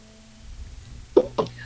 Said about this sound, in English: I think she took a drink. I heard a I heard a glass go on the table.